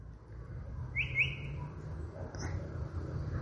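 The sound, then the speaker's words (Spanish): A chalk-browed mockingbird (Mimus saturninus), a skilled mimic, sings a couple of brief, clear whistled notes over a steady low background rumble. “Es muy dúctil el canto de la calandria.”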